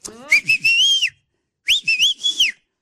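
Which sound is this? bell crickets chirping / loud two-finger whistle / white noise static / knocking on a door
loud two-finger whistle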